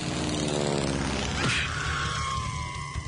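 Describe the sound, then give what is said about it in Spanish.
A propeller airplane engine drones loudly, its pitch sweeping downward as it passes, then fading into a steady, higher hum as the aircraft moves away. “El utilizar los aviones.”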